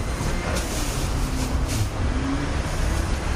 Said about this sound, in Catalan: Les cases vibren d'una manera important davant del pas de, tots aquests camions que veus. Si a més ensopeguen forats, com pots imaginar, la, la vibració començava a ser ja de damnificació.